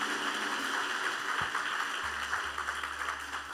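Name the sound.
audience applause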